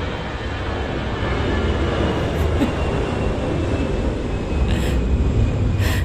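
A loud, steady roar of an airplane passing overhead near an airfield fills the whole stretch, a dense rumbling wash of engine noise with no voices.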